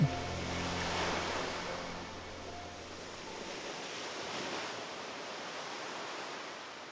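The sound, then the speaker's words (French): Ocean waves rush and break on the shore in a steady, broad wash of surf that swells and recedes twice, with a faint low hum underneath during the first few seconds. “C'est le son des vagues c'est le son de la mer.”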